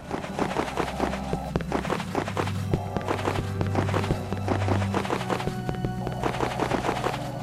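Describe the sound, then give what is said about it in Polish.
A video game sound effect of the player walking into walls repeats as a steady series of dull thuds, almost like quick footsteps, over a low droning hum with no voices. “To jest odgłos ścian tak naprawdę, w które wchodzę.”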